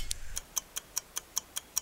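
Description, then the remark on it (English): A countdown clock, started to mark the countdown to the NFL draft, ticks steadily, about five crisp, bright ticks per second in an even rhythm, clear with no voices. “today we celebrate the official start of our countdown to the draft. Coop, start the clock.”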